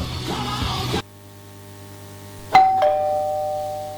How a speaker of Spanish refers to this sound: Le tocan el timbre. Sí, adelante, pasen tocan la puerta también, golpean la puerta.